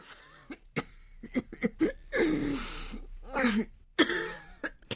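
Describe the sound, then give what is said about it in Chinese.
A woman coughs painfully inside a dark house in a series of harsh, irregular bursts, with rapid, strained, rasping breaths between the fits, fairly loud and with no talking. “应武老婆急促的呼吸声和痛苦的咳嗽声从黑乎乎的屋子里传出来。”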